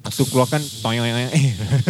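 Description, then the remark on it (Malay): A person talks, then makes a drawn-out hissing sound with their voice to imitate a urine stream, a steady hiss mixed in with the speech. “Itu bunyi kencing dia.”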